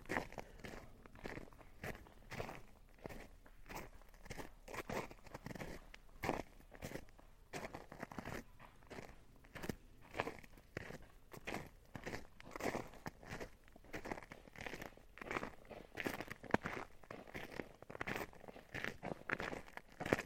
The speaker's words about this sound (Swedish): Det är alltså någon som är ute och joggar här på isen.